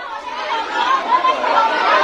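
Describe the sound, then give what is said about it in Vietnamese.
A dense, steady crowd roar of many overlapping voices chattering at once, loud, from a crowd of hundreds or thousands of people scrambling to buy face masks at a market, with no single voice standing out over the two seconds. “Những âm thanh hỗn loạn của đám đông hàng trăm hàng nghìn người trong cảnh mua tranh bán cướp từng chiếc khẩu trang”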